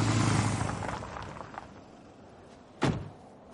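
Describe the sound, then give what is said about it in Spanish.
A car engine rumbles low and fades as the vehicle parks on the street at a house, followed by a short pause and then a single sharp car door thunk as the driver gets out. “En la calle, Henry aparca en casa de Liam.”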